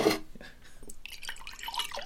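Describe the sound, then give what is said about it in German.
Cocoa poured from a thermos into a cup: a brief gurgling trickle with bright, splashy dripping tones, steady for about two seconds at a modest level, with no voices. “Noch einen Schluck Kakao?”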